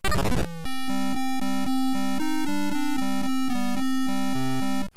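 The Jumpman falling death sound from the retro video game Jumpman, played when Jumpman falls from a girder: a brief harsh crunch of noise, then a steady sequence of buzzy, square-wave beeps stepping through short notes for several seconds, loud and with no voices.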